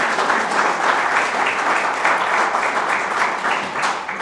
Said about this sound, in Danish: Og de lød bare, skal vi ikke lige uh, give dem en klap for deres skrøde musik?